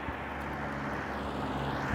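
A steady, broad rumble of passing traffic fills the whole stretch, a continuous low hum with a wash of road noise and no voices.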